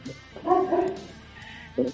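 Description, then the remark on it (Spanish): A dog barks in short, yipping bursts: a louder pair of barks, a pause, then one more sharp bark at the end, with faint voices in the background. “el perro ese que está ahí no lo vamos a echar en carnitas, está jajaja”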